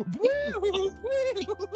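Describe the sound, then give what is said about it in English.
A person vocally imitates an alarm going off, with two fairly loud rising-and-falling wails followed by a quick wavering tail, no actual siren present. “so they're just like, like the alarm's like,”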